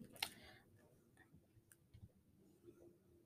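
A dog named Annie licks the fabric of a bed, a soft, wet, irregular lapping with small clicks, sharper smacks at the start and end, and no talking.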